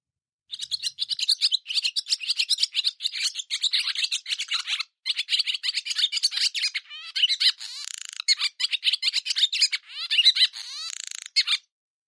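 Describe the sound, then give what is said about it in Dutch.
A barn swallow sings a long, continuous stream of rapid twittering mixed with dry, crackling notes, fairly loud, with only a brief pause midway and no voices. “Er zitten allemaal eh, knispertjes in en andere eh, mooie eh, geluidjes. dat is wat je vrolijke kwetter noemt.”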